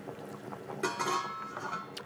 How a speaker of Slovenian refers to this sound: ne vidimo dejansko posoden loncev, ampak eh, jih simbolizira samo zvok.